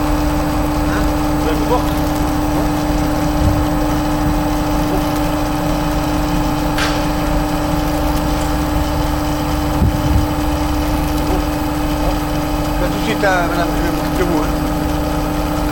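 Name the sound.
car engine idling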